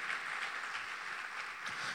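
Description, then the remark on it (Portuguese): A large crowd claps together in a steady, dense wash of applause that holds at an even level throughout, with no voices standing out. “Aplauda Ele por essa palavra.”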